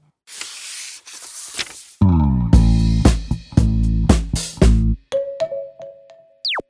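After a brief rushing hiss, a van in a garage beeps loudly, about five rhythmic honk-like pulses in a row. A steady electronic tone and a short falling whistle follow. No one speaks.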